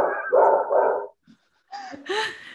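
A dog barks and yips in two short bursts separated by a brief pause, close and fairly loud, with whiny, high-pitched edges to the later barks and no talking.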